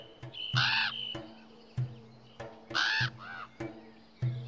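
Two loud, harsh raven caws ring out about two seconds apart, with quieter croaks and clicks scattered between them against a faint low hum. No one speaks.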